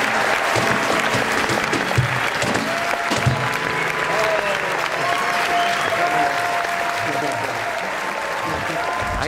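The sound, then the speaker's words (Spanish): A crowd applauds steadily, a dense wash of clapping that holds an even loudness throughout, with scattered voices and cheers mixed into the noise. “¿Sabéis, ¿Sabéis quién aplaude? ¿Quién aplaude?”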